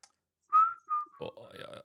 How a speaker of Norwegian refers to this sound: Jeg kan plystre litt.